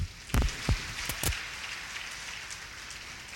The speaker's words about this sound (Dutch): Dankjewel, geef een applaus.